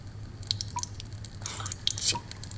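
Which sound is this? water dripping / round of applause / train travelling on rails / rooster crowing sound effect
water dripping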